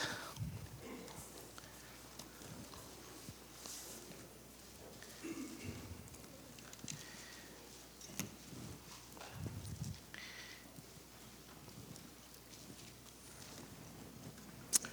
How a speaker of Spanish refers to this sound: Si sí saben dónde está Filipenses, ¿verdad, hermanos? Que todavía se escuchan las hojas.